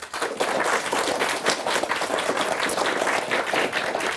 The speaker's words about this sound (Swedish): Det blev en ganska klar seger till slut men vi har en värdig tredjeplats eh, eh, på tredje plats idag. Sund, klass 6. En applåd!